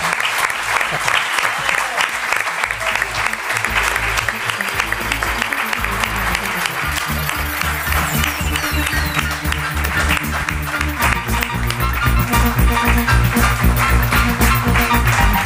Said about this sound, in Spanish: Un aplauso enorme para este auténtico genio.